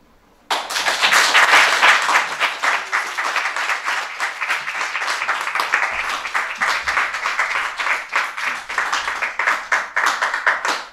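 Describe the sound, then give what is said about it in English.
Loud, sustained applause from an audience for the night's storytellers, starting abruptly and continuing steadily as a dense wash of many hands clapping, with individual claps becoming more distinct as it begins to thin toward the end. “Uh, one more big round of applause for all of our storytellers.”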